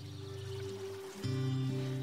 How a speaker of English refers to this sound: as they get washed away by the sound of the waterfall. As you feel the light, refreshing mist of the waterfall all over your body.